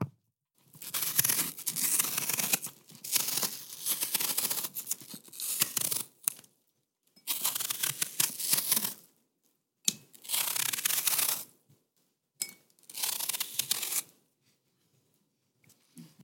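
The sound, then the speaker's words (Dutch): An apple being peeled with a knife: a series of about six raspy, scraping strokes, each lasting a second or two, separated by short pauses, with no talking. “We gaan even naar luisteren, want er is, wordt nu hier een appel geschild. Ik ga gewoon even de microfoon erop zetten.”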